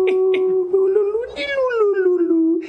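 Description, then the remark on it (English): A voice imitates a clarinetist who wandered a residential street playing, with one sustained, reedy, nasal clarinet tone lasting a few seconds. It is steady in volume, and the pitch bends up in the middle before settling back down. “and it, it was like start quiet and get louder and louder and louder. And there was a clarinetist that had just taken up like fucking residence on, on my street, and he would wander around, and I never saw him.”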